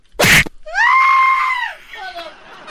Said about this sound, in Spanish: No me estés gritando enfrente de la gente.